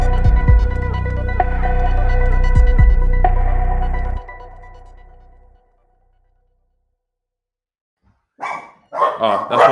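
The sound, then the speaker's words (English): A steady musical passage plays and fades into a few seconds of silence, then dogs break into a quick flurry of sharp, loud barks near the end as someone comes in the door. “Dad, my, my dad's literally just coming the door because as soon as he there, you hear the dogs.”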